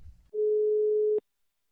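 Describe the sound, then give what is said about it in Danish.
A single steady telephone ringing tone of an outgoing call to the music editor at Radio Loud sounds through the line for just under a second, a clear mid-pitched beep that cuts off with a click, preceded by a brief low rumble. “Nu synes jeg, at i stedet for, at vi skal ringe til vores musikredaktør, K.”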